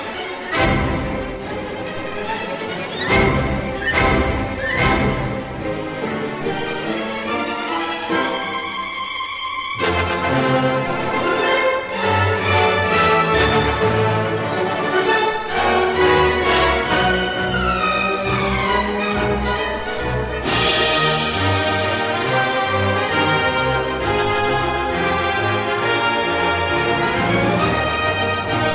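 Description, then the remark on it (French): A bright, playful, childlike orchestral theme from the 1954 film score of Prince Valiant, with bouncing rhythms and lively melodic runs, played loud and full throughout without any voices, with a brief quieter break before swelling back. “Et Et, et, donc la musique se doit d'être enfantine. Donc là, effectivement, sur Prince voyant, sur le thème qu'on écoute là tout de suite, il y a un côté, on y va à fond”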